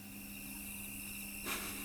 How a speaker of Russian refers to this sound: Сверчки. Да, там звучим мы. Нет, там звучат сверчки.